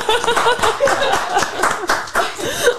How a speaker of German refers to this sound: Wow. Das, das muss, da muss man wirklich mal klatschen.